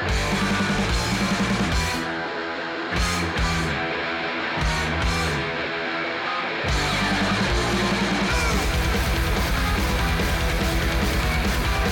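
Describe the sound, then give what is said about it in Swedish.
A fast, loud metal track in minor chords, the album's second track and 2:56 long, with dense distorted guitars and pounding drums, briefly dropping to a thinner break before crashing back in at full force. “Det är låt nummer två och den är bara 2.56 lång.”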